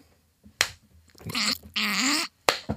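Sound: high five hand slap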